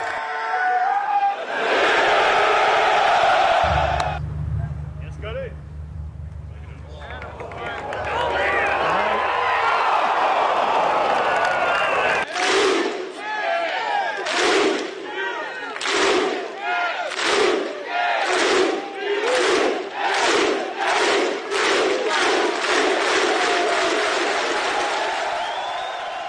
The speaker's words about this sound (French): Et c'était ça toute la journée, hein, une foule en, délire avec des birdies, des eagles même à l'appel.